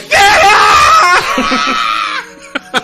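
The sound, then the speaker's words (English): A woman screams loudly and excitedly in a high, sustained shriek lasting about two seconds, then trails off into a few short breathy yelps. “Of course, uh, that lady that you hear screaming over there, if she hovers over you, you have to give the person next to you a kiss”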